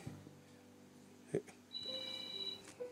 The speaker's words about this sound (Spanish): Dios mío, está el teléfono sonando a mi pose.